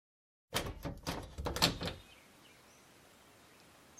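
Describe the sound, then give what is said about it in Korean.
A front door being opened early in the morning, while still dark and cold, after coming downstairs: a quick burst of latch clicks and rattling for about a second and a half, then only a faint, quiet hush. “나는 분홍색 실크 잠옷 위에 회색 누비 실내 가운을 걸친 뒤 아래층으로 내려가 문을 열었다.”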